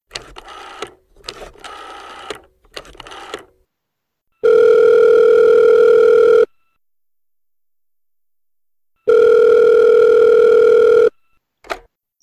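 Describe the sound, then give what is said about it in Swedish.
A phone call being placed to Peter Grönvall for an interview: a quick run of short dialing beeps, then two long, steady ringback tones separated by a few seconds of silence, loud. “Jag tycker vi tar och ringer upp honom och lyssnar på det.”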